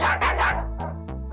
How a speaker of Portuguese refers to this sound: Um estranho rosnado como de uma fera, atiça novamente os cães. Dessa vez os cachorros voltam a latir mais alto e mais agitados do que antes.